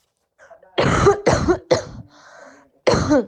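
A person coughs three times in quick succession, fairly loud, then pauses briefly before one final harsh cough, with no talking.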